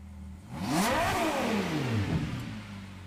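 The 6.5-litre naturally aspirated V12 engine of a 2021 Ferrari 812 GTS sports car revs up sharply, climbs to a high-pitched wail and then drops back down, loud, with no one speaking.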